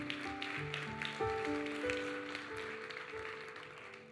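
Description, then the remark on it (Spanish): A crowd claps steadily and loudly for God, a dense wash of many hands, while sustained keyboard or organ chords ring underneath. “Vamos, dale fuerte ese aplauso a Dios y se los vas a dar.”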